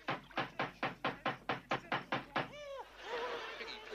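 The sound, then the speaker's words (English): A rapid, insistent run of about ten loud knocks on a door in a steady rhythm, followed by a brief wavering vocal sound and some rustling noise. “At the door.”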